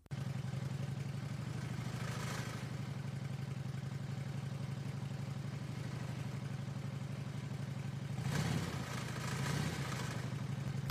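A motorcycle engine idles steadily with a low, throbbing rumble and faint mechanical clatter, holding an even rhythm before briefly revving slightly louder near the end.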